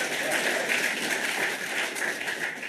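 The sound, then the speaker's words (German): Steady applause from an audience, a dense, even wash of many hands clapping at moderate volume that continues without pause for a few seconds. “Und dann schiebt er schnell noch etwas ein, für das ihm der Applaus im Publikum garantiert ist.”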